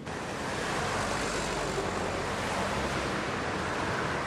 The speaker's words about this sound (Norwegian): Trafikken går tett mellom skyskraperne her i Doha, hovedstaden i oljelandet Qatar.